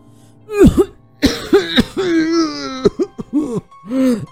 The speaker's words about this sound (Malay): Kali ini batuknya bertambah teruk Sehingga tersembur darah dari mulutnya